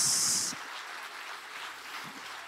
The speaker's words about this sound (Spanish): Si le va a dar el aplauso